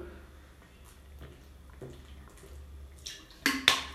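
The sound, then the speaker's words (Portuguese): Quiet water sounds, someone taking a drink of water, with soft faint rustles that end in two brief, sharper splashy gulps. No one speaks. “Pausa para água.”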